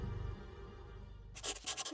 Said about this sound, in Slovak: Krištof Power sedí vo svojej pracovni. Brko namočené v atramente s ľahkosťou klže po papieri. Mestský kapitán zaznamenáva pohnuté okolnosti posledných dní.